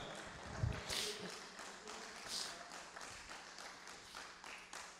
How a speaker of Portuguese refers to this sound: Se é você, querido, mesmo aí na tua casa, glorifica o santo nome do Senhor, dá uma salva de palmas de você.